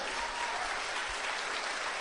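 An audience applauds steadily, a dense wash of many hands clapping at an even, moderate loudness for the whole couple of seconds, with no voices heard above it.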